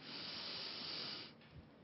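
A long, steady airy inhalation, a deep breath taken with eyes closed during a guided meditation, lasting over a second, fairly loud with a broad hissing quality, then tapering off into quiet.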